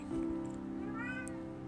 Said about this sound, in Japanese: 猫飼ってるんでたびたび猫の声が入るかと思うんですけどちょっと皆さんそれに癒されてください